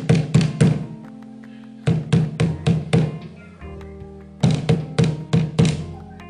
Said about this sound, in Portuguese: Aqui no meu quintal, pego um tronco do chão, coloco aqui, vou martelar. A cerca aqui está quebrada com um prego a martelar.